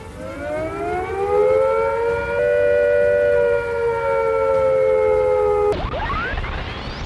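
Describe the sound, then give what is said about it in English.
A civil defence attack warning siren, the sound given when attack is imminent, rises and holds a loud, steady wailing tone for several seconds, then abruptly cuts to another siren beginning to wind up. No one speaks. “If attack is imminent, you will hear the attack sound like this.”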